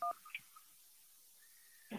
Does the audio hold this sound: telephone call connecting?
yes